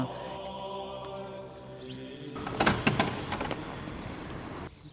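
A steady tonal hum gives way to the heavy door of a church with a 17th-century choir and nave being pushed open, with a cluster of loud creaks and knocks followed by an echoing wash of sound.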